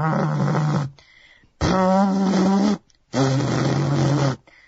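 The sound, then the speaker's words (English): A voice imitates a growling electronic bass in three loud, buzzy bursts, each about a second long with short pauses between, gritty with no other talking. “It just sounds like electronic farting”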